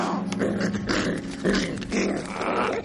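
Sandy gnaws on a bone: steady, rasping chewing and crunching with low growly grunts running through, continuous for the whole stretch, no talking.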